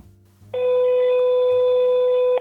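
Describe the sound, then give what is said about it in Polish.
A steady telephone ringback tone of an outgoing call to a hotel in Katowice, made to book a room, sounds loudly and continuously for about two seconds, preceded by a brief low hum, with no voices present. “Posłuchajcie jednego z tych telefonów, które wykonał Michał.”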